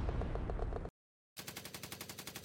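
Loud bursts of gunfire as Major Sharma's troops fire on the enemy: a dense, roaring stretch of shots, a brief silence, then a rapid, evenly spaced stream of automatic fire. No voices.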